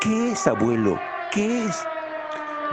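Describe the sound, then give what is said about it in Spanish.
An air-raid siren drones steadily throughout, warning that a bombing attack will come in minutes, a sustained tone held at a fairly loud level while a voice asks questions over it. “esa es una alarma antiaérea.”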